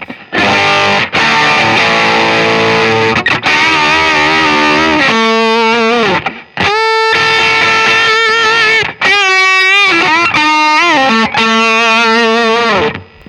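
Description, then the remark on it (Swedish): Heavily fuzzed electric guitar played through a stock Tonebender Mark 1 fuzz pedal, sustained, buzzy chords and bent notes in several loud bursts separated by brief pauses, with a thick, saturated and harmonically rich tone. No voices are heard. “Det här är alltså Tombender Mark 1 ja, stock?”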